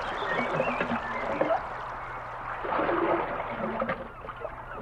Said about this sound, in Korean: 이번에는 나룻배를 탔어요.